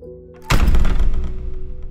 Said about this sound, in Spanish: y desapareció en las profundidades de la tierra dejó que la pesada puerta cayera tras de ella.